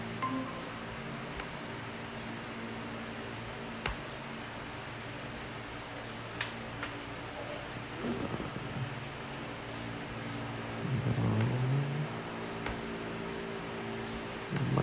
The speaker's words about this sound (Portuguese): barulho do meu ventilador atrapalha vocês aí?